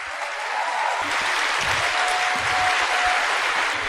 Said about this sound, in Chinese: 哇，这么多的新朋友，让我们一个最热烈的掌声欢迎你好吗？